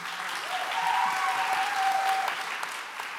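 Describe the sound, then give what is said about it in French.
Steady applause from an audience for journalist guests being introduced, a dense wash of clapping that holds at an even level for a few seconds, with a thin tonal whistle riding briefly through the middle. “On peut les applaudir.”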